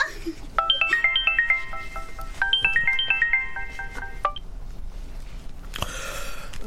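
A melodic phone ringtone plays two bursts of quick, stepped electronic tones, clear, followed by a brief rustling noise at the end.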